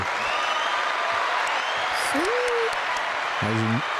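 Canned applause from an applause box: a dense, steady wash of clapping that fills the whole clip at an even, fairly loud level, with a short vocal sound and a brief tonal burst over it.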